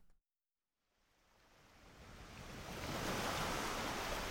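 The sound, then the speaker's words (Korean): A broad, rushing wash of surf swells up after a brief silence, growing steadily louder as waves break and roar beside a coastal road, spray rising high toward the sky, with people fishing in front of the waves; no voices. “부서지는 파도가 하늘을 향해 높게 올라오는데 낚시하는 사람들이 보인다.”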